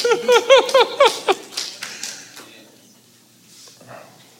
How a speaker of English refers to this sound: Random pitter patter of claps. Random.